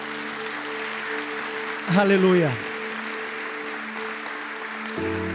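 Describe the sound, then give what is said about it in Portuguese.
A church audience at a Portuguese-language service applauds the name of Jesus, steady applause filling the whole stretch as a dense, even clatter, over sustained keyboard chords, with one voice briefly calling out in the middle. “Você pode aplaudir o nome do Senhor Jesus?”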